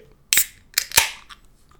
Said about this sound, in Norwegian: åpne en burn. Nei da, det var en øl. jeg får bare knipse på mine.